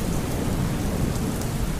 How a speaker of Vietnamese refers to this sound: Thì người ngợm đã ướt nhem Cơn mưa lớn quá làm cho áo mưa tạt đi